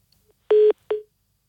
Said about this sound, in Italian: Caduta la linea.